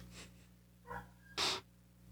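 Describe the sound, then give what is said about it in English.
Two short barks from a dog, the second sharper and louder than the first, with otherwise quiet surroundings and no one talking. “Up, dogs are barking.”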